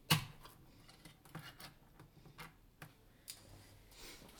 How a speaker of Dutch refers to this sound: Nou, we gaan hem even opentrekken. Hoop ik. Klein blikje mais.